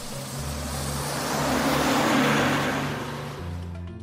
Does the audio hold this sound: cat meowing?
no